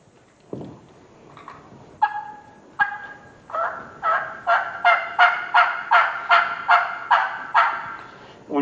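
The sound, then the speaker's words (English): A turkey call is worked, yelping in a steady series of about a dozen loud, evenly spaced raspy notes, preceded by a few scattered softer calls. No one speaks. “But what happens a lot of times is when you go in there, and uh, uh and you start working at old turkey a little bit.”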